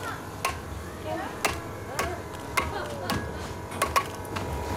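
A heavy sledgehammer strikes metal on an anvil about eight times in a steady, unhurried rhythm, each tap sharp, flattening the head of a metal piece, with faint voices murmuring in the background.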